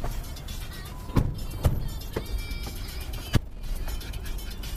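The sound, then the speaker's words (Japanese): Steady low rumble and road noise from inside a moving taxi heading to the Brooklyn Museum early in the morning, with a few sharp knocks and thumps scattered through it; no one speaks. “朝の、えー、一番で展覧会場に行って、まあ、状況を見るというそういう状況なんですけど、まあ、今から車に乗ろうと思いますまたタクシートークですね”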